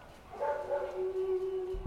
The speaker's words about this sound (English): But amid the smoke, one protester held his ground. A black street dog was barking, or ladrando.